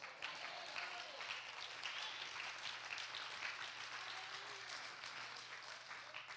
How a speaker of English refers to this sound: I would be thankful for any president. So I think you, all of us should be able to clap for that.